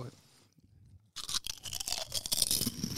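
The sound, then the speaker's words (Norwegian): After a quiet opening, a chocolate flake is crunched right by the microphone: loud, dense, brittle crackling and crumbling that bursts in and keeps going unevenly to the end. “det er Jævlig stygg lyd, altså. Du får det rett i øret.”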